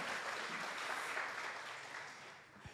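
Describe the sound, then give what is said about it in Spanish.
A steady wash of crowd applause for a visiting family from Bolivia, many hands clapping densely without a clear rhythm, loud throughout and easing slightly toward the end, with no voices rising above it. “Un aplauso.”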